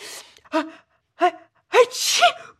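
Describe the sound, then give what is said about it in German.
Two short, breathy voiced gasps build up before a loud, explosive sneeze bursts out, sounding theatrical, as if performed by a voice. No talking. “Hm, der schnellste und krachigste Nieser der Welt.”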